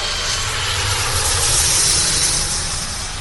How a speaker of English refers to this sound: Aeroplanes.